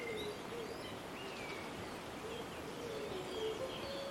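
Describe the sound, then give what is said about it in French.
Soft, low cooing of wood pigeons repeats through a steady outdoor background at a forest edge and clearing, joined by higher chirps from other birds; no one speaks. “J'aperçois aussi des pigeons ramiers lorgnés sur des ressources tant désirées.”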